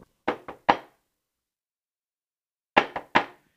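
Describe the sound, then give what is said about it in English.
Two separate sets of knocks by a neighbour on an apartment door, each a quick triple rap, sharp, separated by about two seconds of silence. No one speaks. “Um, and today I he knocked on our door twice, like two different”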